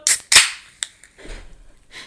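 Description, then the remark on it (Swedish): An energy drink can is cracked open for a toast: a couple of sharp metallic clicks and a loud pop, followed by a soft fizzing hiss as the carbonation escapes. “Det lät som en öl. Det var inte en öl. Michelle skålar med en energidryck”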